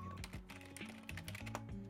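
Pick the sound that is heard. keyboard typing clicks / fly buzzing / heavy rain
keyboard typing clicks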